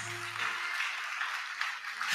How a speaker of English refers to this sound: Clap for Jesus.